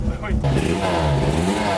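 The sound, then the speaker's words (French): A rally car engine revs loudly, a buzzy, rasping, chainsaw-like drone that climbs in pitch and holds steady for a couple of seconds. “Enfin, un léger Roland de moteur tronçonneuse.”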